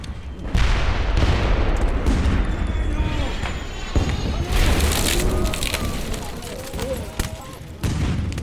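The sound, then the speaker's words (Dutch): A dense, continuous volley of gunfire bangs cracks over a loud, chaotic backdrop, with shouting voices mixed in. The shots stay sharp and heavy throughout, the bangs coming steadily closer, and another hard burst arrives near the end. “Ik hoorde knallen steeds dichterbij komen.”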